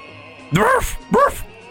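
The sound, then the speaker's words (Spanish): A human voice imitates a dog barking, two short, loud woofs spaced about half a second apart, with quiet background between them. “Pasó un rato mm. y oyó. "Ruf".”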